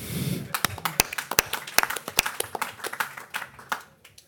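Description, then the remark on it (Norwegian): An audience claps in scattered, uneven bursts for the news that Jonny Enger was sentenced to prison, with several sharp, distinct hand claps standing out over quieter background clapping for a few seconds. “Og i dag ble Jonny Enger dømt til fengsel. Det burde vi egentlig klappe for.”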